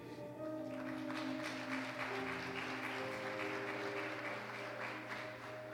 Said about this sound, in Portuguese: Se você viu essa pessoa fazer uma oração, abraça essa pessoa enquanto a gente aplaude o Senhor, igreja.